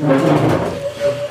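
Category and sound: household object, chair noise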